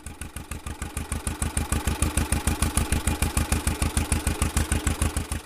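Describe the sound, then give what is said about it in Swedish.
A two-cylinder John Deere tractor engine runs steadily, its slow, heavy putt-putt beat thumping at an even rhythm with a clattery mechanical edge, no voices present. “Som de flesta John Deere-samlare så är det mest de tvåcylindriga traktorerna med sitt typiska ljud som de brinner för och som ju tilltalar så många.”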